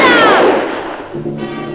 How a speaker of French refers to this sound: Personne ne se doutait que ce coup de feu allait déclencher bien des événements.